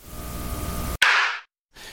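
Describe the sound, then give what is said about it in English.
A single sudden, loud gunshot on a hissy cassette tape recording, harsh and distorted, ringing out briefly before cutting to a moment of dead silence, then the background hiss returns. “But he explained the sound of the gunshot not as the sound of a gunshot, but just as distortion on the tape recorder.”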